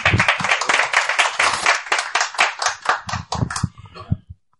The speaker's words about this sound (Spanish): Estamos aquí en la mesa unos poquitos, pero también al otro lado de la mesa estáis también unos cuantos que podéis saludar, aplaudir ahora este momento. Mentira, porque no se os oye.